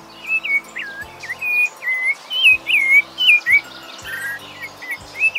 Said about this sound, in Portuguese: Começa com a gralha. E o sabiá.